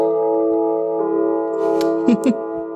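A loud gong chime rings out with a steady, sustained metallic tone that hums through the whole moment, with a few faint rustles and knocks late in the ring.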